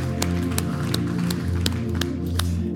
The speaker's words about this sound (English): Amen, amen. Man, it's so good to be in the Lord's house. Amen. You can clap again.